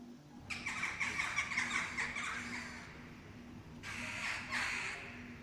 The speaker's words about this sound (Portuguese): mais uma gralha que voava naquela direção percebeu o que o lobo esfomeado queria fazer e pousou em um dos ramos da árvore de amoras, gritando e fazendo um barulho tão alto que acordou o coelhinho